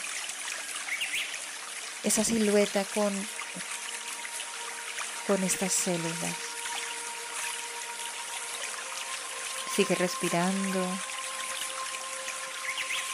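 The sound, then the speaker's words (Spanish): Falling water trickles steadily throughout, a soft continuous splashing hiss, while a calm voice speaks a few short phrases over it. “Escucha este sonido del agua cayendo, porque el agua nos ayuda a limpiar.”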